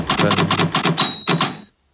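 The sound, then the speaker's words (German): A quick, steady run of sharp typewriter keystrokes typing 'Guten Tag. Hier ist der Apfelkuchen.', and partway through a single high, ringing carriage bell rings out over the clacking before it stops. “Hat das geklingelt? Ich muss also wieder nach links den Wagen bewegen und mit Enter eine Zeile weiterdrehen.”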